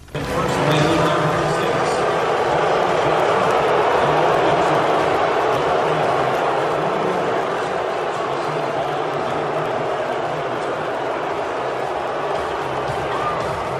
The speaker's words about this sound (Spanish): Eso que se escucha es un abucheo, un enorme abucheo ayer a Donald Trump durante el partido entre los Astros de Houston y los Nationals de Washington, el eh, partido número 5 de la Serie Mundial 2019.